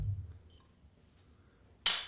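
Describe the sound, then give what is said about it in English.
Glasses clink together once in a toast, a bright, sharp ring that arrives suddenly after a quiet pause, fairly loud, with a faint low rumble beforehand. “And uh, cheers to you, bub.”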